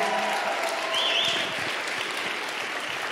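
A crowd applauds steadily, a dense wash of clapping at a constant loud level for a few seconds, with a faint whistle or cheer rising briefly above it, welcoming a speaker to the stage at a church.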